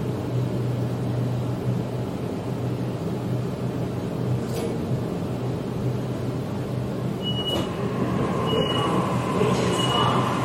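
Steady rumble of a moving Sydney Trains commuter train heard from inside the carriage as it approaches Wynyard station, with a low droning hum, clattering wheels and a few brief high squeals and clicks near the end.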